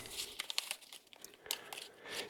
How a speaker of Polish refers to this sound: Niektórzy właśnie lubią ten taki szelest yy, banknotów. No to, to, to też gdzieś tam ma swój urok.